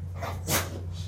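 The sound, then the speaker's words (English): A female dog gives a short, sharp sneeze, a quick burst of breathy noise in the middle of an otherwise quiet moment with a low steady hum underneath. “Bless you again. You okay?”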